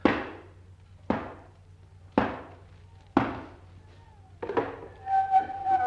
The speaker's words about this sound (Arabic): الباب الثالث وادي الاربع حلقات اما خبط اربع خبطات